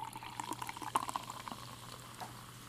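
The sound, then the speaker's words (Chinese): Sparkling water is poured in a steady, low fizzing stream, with dense crackling bubbles and a few brighter clinks and pops near the start, fading to a soft hiss. “一定要在这个所有的一个轮值结束之前，赶快把气泡水买够，才能够继续维持刚开始的一些音效。”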